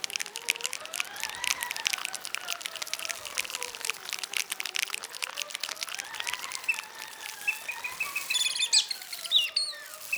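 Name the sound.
forest birds singing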